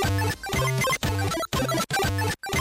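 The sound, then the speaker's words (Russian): A short, loud musical jingle marking the start of round one, with punchy, bright tones in quick rhythmic bursts separated by brief gaps, played alone with no voices. “Давайте позволим нашим джинглам отбить раунд номер один.”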